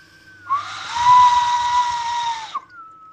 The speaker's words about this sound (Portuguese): Vocês ouvem esse barulho? Eu ouço. É o vento. Aqui tem muito vento. Aqui nas missões.